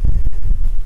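Blustery wind buffets the microphone in loud, rumbling low gusts that fluctuate for just under a second on a sunny, very blustery day, with no voices present.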